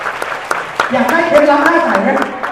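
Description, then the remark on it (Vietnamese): Steady clapping from an audience at a Nutrilite presentation, sharp claps in a loose rhythm, with voices cheering or talking loudly over it for the whole stretch. “Hãy dành một tràng pháo tay cho Atiki và Nutrilite”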